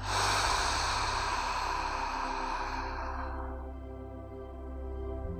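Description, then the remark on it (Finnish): A long, breathy exhale out through the mouth during a breathing exercise, after breathing in through the nose, rushes out steadily for a few seconds, then fades away, leaving a soft low hum beneath. “Sieraimista sisään ja suusta ulos.”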